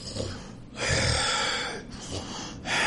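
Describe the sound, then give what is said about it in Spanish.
A voice imitates a sleeping toad snoring with noisy, rasping breaths, three drawn-out pulses in a slow rhythm, loud and breathy with a throaty rumble and no words. “Y lo oyes...”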